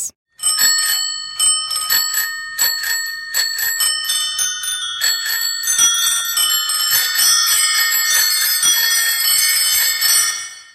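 Many bicycle bells ring over and over in quick, overlapping bright dings, building into a dense continuous jangle that stays loud throughout, with no voices.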